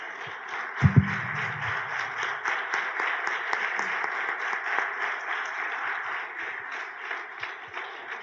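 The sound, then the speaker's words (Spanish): An audience applauds during a Spanish-language sermon, giving applause to the Lord: a steady, dense wash of many hands clapping that holds through the whole stretch, with a brief low thump near the start and no talking over it. “Demos un aplauso Señor.”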